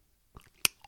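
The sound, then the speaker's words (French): A voice imitates a bottle being opened, as part of imitating making a mocktail: a soft mouth click, then one sharp, bright pop, followed by a faint little click. The sounds are short and crisp, with no speech. “c'est quand on ouvre la bouteille, c'est quand on verse, c'est le shaker, et glou glou glou glou glou, c'est quand on boit.”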